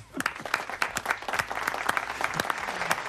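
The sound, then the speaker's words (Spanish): An audience applauds steadily for about three seconds, a dense crackle of many hands clapping at a fairly loud, even level with sharp individual claps standing out from the wash. “Un aplauso para Frank Estrada.”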